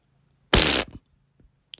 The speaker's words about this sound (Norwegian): Men eh, da tror jeg at vi skal eh, Nå skal vi gjette fi, den første fisen.